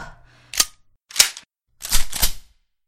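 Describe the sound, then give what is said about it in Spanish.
Sharp bursts of gunfire ring out in three quick groups: a single crack, another shot, then a tighter double burst, each with bright, hissing high end and a short tail. “Este cargador también se ha acabado.”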